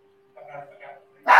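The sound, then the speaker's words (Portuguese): A female dog gives a short whining yelp followed by a sudden loud, sharp bark, with a faint steady hum underneath. “Se eu não trocar, ela vai ficar latindo até o final do faca aí.”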